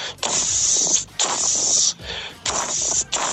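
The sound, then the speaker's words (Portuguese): A voice imitates fat dripping and sizzling on a churrasco barbecue, with four bursts of loud hissing, each about half a second to a second long, broken by brief pauses. “aquela gordurinha pingando no, do churrasco, né? Que eu costumo fazer o, até o som na Rádio Gaúcha”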